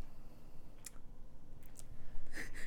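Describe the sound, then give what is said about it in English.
A dog slurps and laps in short, wet, clicky bursts, irregular at first and then a quick cluster near the end, set over a quiet hum. “Hopefully, we don't get dog slurping noises in the background.”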